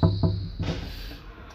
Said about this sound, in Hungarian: Most kopogtam hármat.